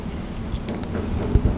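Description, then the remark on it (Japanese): Small change coins are tossed into an old wooden shrine offering box, landing in a short cluster of dull clinks and thuds near the end against steady outdoor background noise. “私は私は予算の関係で小銭で”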